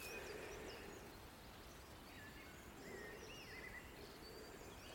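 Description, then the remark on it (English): A mistle thrush sings in short, fluty whistled phrases with pauses between them, fairly faint over a steady hiss of outdoor background noise and other birds. “Yeah, there's a, also a mistle thrush now.”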